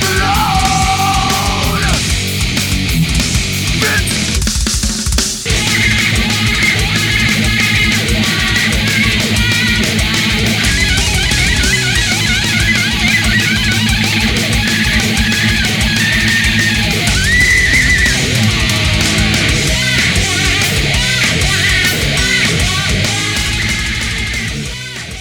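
A heavy metal song plays loud and dense throughout, with a wall of distorted guitar and pounding drums and what sound like shouted vocals, fading slightly at the very end.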